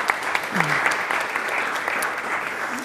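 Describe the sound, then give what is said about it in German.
Steady audience applause of welcome, a dense wash of many hands clapping at a fairly even loudness throughout, with a faint voice briefly audible beneath it. “So, herzlich willkommen. Applaus”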